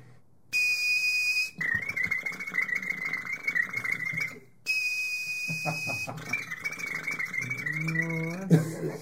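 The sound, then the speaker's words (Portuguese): A person imitates an old dial-up modem connecting using only their mouth: a steady whistled tone, then harsh buzzing screeches and warbling chirps in two long bursts, loud, with no talking. “É, o cara chegou pra mim e falou assim: faz modem antigo.”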